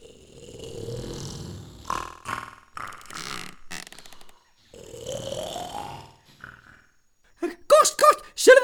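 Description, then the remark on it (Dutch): Two soft, drawn-out snores, each a breathy rasp lasting over a second, a voice imitating a huge oak tree snoring very softly in its sleep. A few brief, louder vocal bursts follow at the end. “Hij sliep, hij snurkte heel zachtjes. Je kon het horen als je goed luisterde.”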